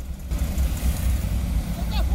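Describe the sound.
Congested street traffic of cars and trucks caused by busy commercial activity, a steady, fairly loud low engine rumble that continues throughout, with faint indistinct voices mixed into the background.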